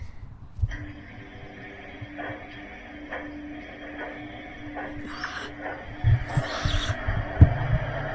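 A washing machine runs steadily with a low rumbling hum and soft rhythmic thumps, punctuated by a couple of brief, louder swishing bursts near the end.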